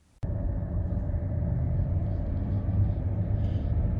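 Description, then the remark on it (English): A car cruising at highway speed on the I-20 in South Carolina, heard as a steady, loud low-pitched road rumble and engine drone that starts abruptly and continues evenly throughout, with no voices. “sent us this video she filmed while driving along the I-20 in South Carolina.”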